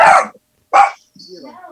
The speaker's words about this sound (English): That's all that dog does is bark. it's, a, it's yapping.